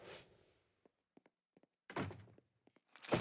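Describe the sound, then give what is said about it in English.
A person is dropped hard onto a couch with a dull, muffled thunk, surrounded by a few light creaks and rustles, then another soft thump as the body settles, with no talking. “Yeah, that felt good, dropping me hard on the couch like that.”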